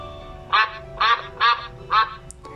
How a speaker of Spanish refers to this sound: No vi tu colita, pero si la veo, yo graznaré respondió el pato.